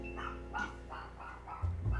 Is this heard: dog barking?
yes